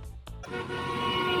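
The first car horn (klaxon): two quick, short honks followed by a long, sustained, buzzy blare that holds steady and grows slightly louder to the end, with no talking.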